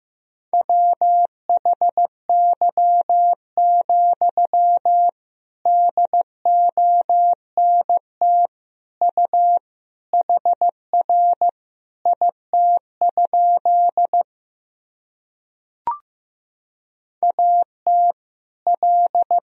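A single steady beeping tone keyed on and off in Morse code at 15 words per minute, sending sentences of common words and abbreviations, with short dots and longer dashes grouped into words at a moderate, even pace, heard alone and clearly, with brief pauses between groups.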